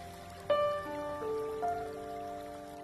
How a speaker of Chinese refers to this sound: 注意听水流动的声音，因为这条小溪来自这座山。